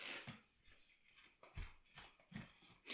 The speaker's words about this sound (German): Mein Hund kläfft gerade. Du hörst es wahrscheinlich nicht, oder? Hörst du es? Ja, doch, ich höre es.